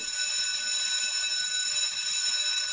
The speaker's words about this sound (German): Was? Was? Was? Es war die Glocke.